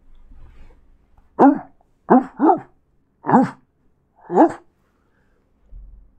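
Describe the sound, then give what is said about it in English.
A person imitates the muffled barking of a large dog: five short, throaty woofs in an uneven rhythm, two of them close together, with quiet pauses between. “That's not a bad muffled dog I just pulled off there.”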